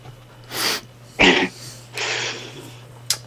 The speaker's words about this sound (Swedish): Oj, nu råkade jag hosta. Jag tror att det var Corona.